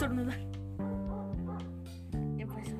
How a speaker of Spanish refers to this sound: Y ese que se oye en el audio no es nuestra perrita. Es, un perrotote. Un perrotote que lo sacan a la calle y ladra.